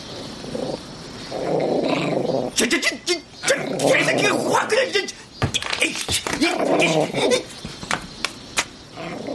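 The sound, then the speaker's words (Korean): A small dog growls low and rumbling, baring its teeth as it approaches a man by a parasol table outside a supermarket, with sharp snarling snaps and short bursts breaking up the steady growl over several seconds. “개가 이빨을 드러내고 으르렁거리며 다가오자 그는 황급히 파라솔 테이블 위에 있는 생수병을 집어 던지려고 했다.”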